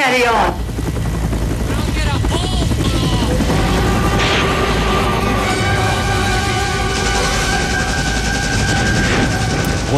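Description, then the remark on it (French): Loud, steady helicopter rotor thumping dominates, layered with a swelling orchestral score by Wagner, scattered gunfire-like bursts, and indistinct shouting voices: a dense battle scene from Coppola's Vietnam War film Apocalypse Now. “la guerre sur grand écran avec ses pales d'hélicoptères au son de Wagner, vous aurez reconnu Apocalypse Now, bien sûr.”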